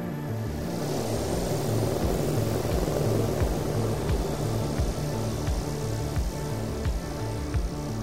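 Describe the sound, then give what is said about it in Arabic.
The Marine One presidential helicopter landing at the hospital to take President Trump to the White House: a steady, heavy engine drone with a rhythmic rotor chop runs throughout, loud, with no voices. “تحط طائرة مارين 1 لتأخذه إلى البيت الأبيض”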